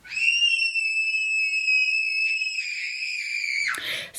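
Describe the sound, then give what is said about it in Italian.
A child's voice squeals in one long, very high-pitched note for about three and a half seconds, wavering slightly, then breaks off with a short breathy burst. Loud, with nothing else around it. “Quando siamo bambini abbiamo tutti la laringe piccola, piccola, piccola e le corde vocali che sono dentro la scatolina sono molto, molto sottili ed hanno quei suoni piacevolmente acuti di questo genere.”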